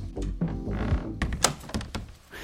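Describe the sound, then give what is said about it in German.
A refrigerator door in a shared-flat kitchen swings closed with a soft, muffled thunk, followed by a few light clicks and rattles as things settle inside. “Ich mache die Tür mal wieder zu.”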